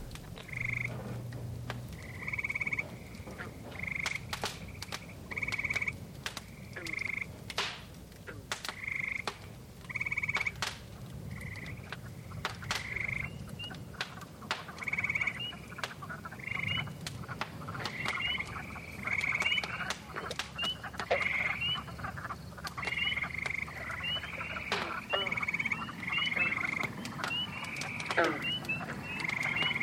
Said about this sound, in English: God, those frogs are loud. They've increased. In fact, they're increasing by the minute.